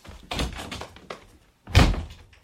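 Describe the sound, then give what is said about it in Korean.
A door is worked open and shut to let in a visitor carrying heavy shopping: a few clattering knocks and rattles, a short pause, then one loud, heavy thump as it closes, with no voices. “뭐 하느라 문을 이렇게 늦게 열어.”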